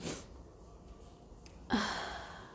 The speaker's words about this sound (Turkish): Benim bu esnemelerim şifadan oluyor. Kadın uykusuz mu kaldı? Ne bu hal demeyin.